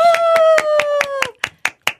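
An audience gives a big round of applause for a singer about to sing a congratulatory song, clapping in a steady, even rhythm, about ten sharp claps, while a long sustained voiced cheer rings over the first half before the clapping continues alone.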